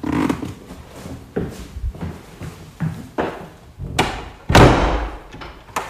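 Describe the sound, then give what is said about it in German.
A door in a theatre is pushed shut with a loud thud, preceded by several softer knocks and handling bumps, then a brief metallic rattle as it settles. “Mach mal die Tür hinter dir zu, damit niemand kommt.”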